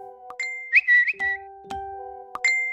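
Several phones' notification chimes from news push alerts about the Hamas attack go off in quick succession, overlapping bright tones and pings stacking up over a few seconds, clear with no talking.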